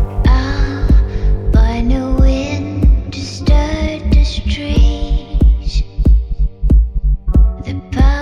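A slow electronic pop intro: a deep, steady kick thumps about every half second under layered synth chords and a high, shimmering melodic line. It is loud, with no voices.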